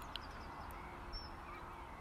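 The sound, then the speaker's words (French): Faint, scattered bird calls, a few short chirps and honk-like notes, over steady outdoor background noise. Nobody speaks. “Ça fait tellement de bien aussi de revoir tous les oiseaux.”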